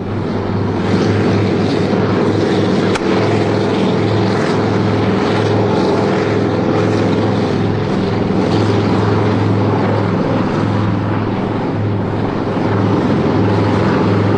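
A helicopter providing air cover drones loudly and steadily with engine and rotors for the whole stretch, a thick continuous roar with a deep, pulsing hum underneath and no voices.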